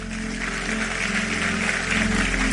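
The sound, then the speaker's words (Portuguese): An audience applauds God in a steady, dense wash of clapping that holds at an even loudness throughout, with a low hum underneath and no one speaking. “Vamos aplaudir a Ele, vamos embora.”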